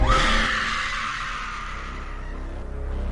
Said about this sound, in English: Summoning your will to survive, you manage to let out one last scream.